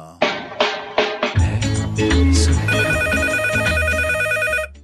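A telephone bell rings in a few quick, sharp bursts, then gives way to a bright electronic jingle with a steady bass line and sustained high tones. Loud, with no talking.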